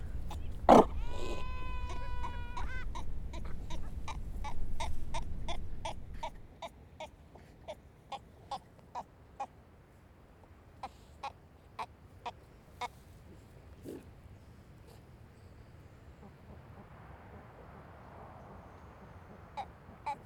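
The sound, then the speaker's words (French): Sea lions hidden in grassland near the sea call out, with a loud, wavering bellow at the start over a low rumble, followed by a quieter run of sharp, irregular clicking pulses. “Après c'est euh, de l'herbe, beaucoup d'herbe avec plein d'otaries cachés euh, à droite à gauche”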